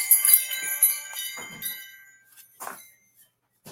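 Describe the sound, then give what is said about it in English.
Wind chimes tinkle, several bright metallic tones ringing together and slowly fading, with a few soft knocks and a brief rustle toward the end. “Oh, and chimes.”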